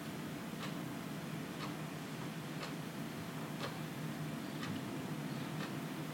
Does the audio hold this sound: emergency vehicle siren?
no